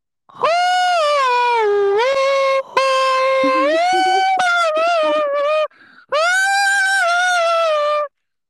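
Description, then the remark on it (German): A person screams loudly and very close to the microphone in three long, sustained, high-pitched bursts with brief gaps between them, the voice wavering and slightly distorted. “So, es ist ähm, reingeschrien hier ins Mikro.”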